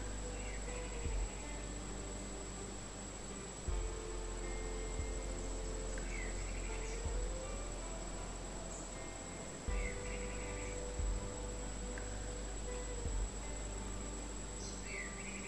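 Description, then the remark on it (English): A steady, high-pitched cricket trill hums continuously through a quiet outdoor scene among ponderosa pines, with faint, distant bird chirps and occasional soft thumps now and then. “The quietness interrupted only by the sound of crickets and the occasional birds in the distance.”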